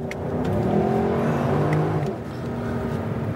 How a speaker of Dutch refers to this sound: De rijimpressie. Ja, Wouter gooide de kap open en reed de Lexus LC Cabrio.